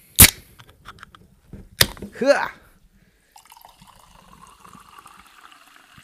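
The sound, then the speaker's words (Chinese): A sharp pop and hiss as sparkling water is opened, then a second crack and a brief chuckle, followed by a faint, steady crackle of fizzing bubbles. “听听气泡水的声音。”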